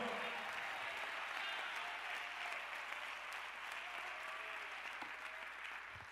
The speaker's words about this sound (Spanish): Si lo cree, déle el mejor aplauso al Señor.